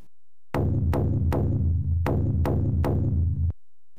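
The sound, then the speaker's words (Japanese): A big drum pounds out six heavy beats in a steady, slightly uneven rhythm outside a baseball stadium under a blazing sun, played by a cheering squad, each hit booming and ringing with a low rumble, loud and full, with no voices. “するとその時球場の外から大きな太鼓の音が聞こえてきた”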